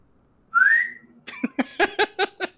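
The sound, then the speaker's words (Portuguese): A person lets out a single short, rising whistle, clear, then breaks into a quick run of about seven choppy voiced bursts that sound like laughter. “Você sabe assobiar”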